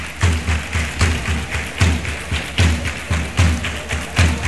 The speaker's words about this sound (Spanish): Y la afición animando a su equipo. Ya escucháis los tambores de guerra.